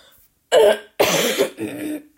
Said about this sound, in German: Boah, das war mehr ein Husten.